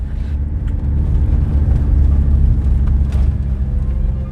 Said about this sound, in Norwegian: Det går så fort bilen kan kjøre, 110 km i timen, på så humpete veier at vi har følelsen av å sitte på hurtigbåten fra Harstad til Bjarkøy i stiv kuling. Det skrangler og rister mens vi farer fram